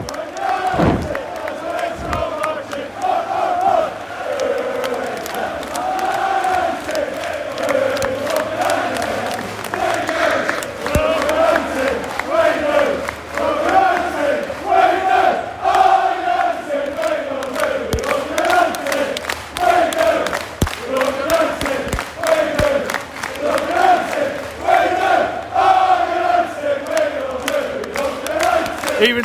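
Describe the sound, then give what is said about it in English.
A large away crowd of United football fans cheers and chants continuously as the United players come over to them at the end of the first half of the season, a dense roar of many voices with rising and falling sung phrases, punctuated by sharp shouts and claps. “Yeah and the United players all coming over as one, and the crowd appreciating him.”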